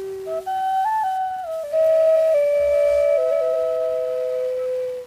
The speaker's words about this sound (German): Doch in dieser Gegend, da hört man es immer wieder mal jene feine Flötentöne im Wind.